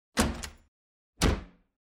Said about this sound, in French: Dès qu'ils ouvrent la porte